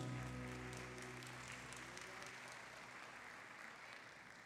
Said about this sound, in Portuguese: Celebra o Senhor com um aplauso.